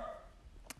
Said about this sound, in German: Ich hoffe, du hörst jetzt gerade nicht im Hintergrund meinen Hund bellen.